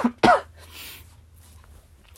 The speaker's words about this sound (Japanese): 咳が止まらない。